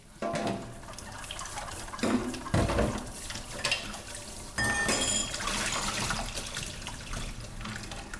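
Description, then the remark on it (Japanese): Dishes being washed under a running tap, with steady splashing water and occasional clinks and clatters of plates and utensils, continuous throughout with no voices. “洗う音｜食器洗い洗剤”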